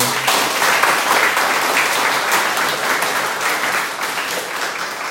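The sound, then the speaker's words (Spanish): Sustained applause from an audience at a church service, a dense wash of many hands clapping at a steady, fairly loud level for several seconds, with no one speaking over it. “Hay que le dar un aplauso por esa Señor.”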